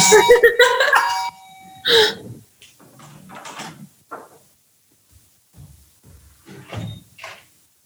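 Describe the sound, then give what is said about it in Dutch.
A doorbell chimes loudly at the start, its ringing tones lasting about a second, followed by a voice speaking intermittently with quiet bumps and pauses. “Ik bel even open”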